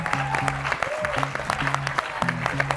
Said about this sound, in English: If we can have one more round of applause for our three incredible panelists.